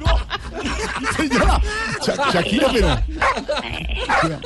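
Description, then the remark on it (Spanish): A dog barks in short bursts, tangled up with people talking and laughing over it. “No, grite, no grite. No grite. ¡Perro! No.”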